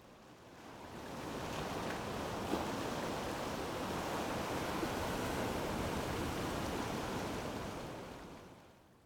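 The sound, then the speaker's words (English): Steady wash of ocean surf breaking and churning along the shore of an intertidal zone, a broad rushing roar that swells in, holds evenly for several seconds, then fades out, with no voices. “Many thanks to Mark Lippman for the ambient intertidal zone recordings.”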